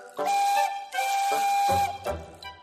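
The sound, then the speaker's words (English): The whistle of an emerald green steam engine gives two loud, sustained blasts with a breathy hiss of steam, followed by a short lower rumble and a fading puff at the end. “Emily is an emerald green engine who can pull passenger coaches or freight”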